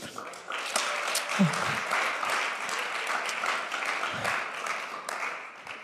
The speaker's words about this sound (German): Gib mir jetzt einen starken Applaus.